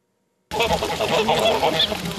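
A flock of domestic geese on a farm in Zakšín, Česká Lípa district, Czech Republic, raised for the St. Martin's Day table, honks loudly and continuously, many overlapping nasal calls forming a dense, chattering din, starting abruptly after a brief silence.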